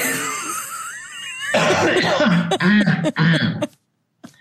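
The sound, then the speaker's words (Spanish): A harsh coughing fit from someone choking: a raspy wheezing breath, then several rough, choking coughs in quick succession that break off into silence, with one faint catch at the end. “porque me estaba ahogando, me estaba ahogando.”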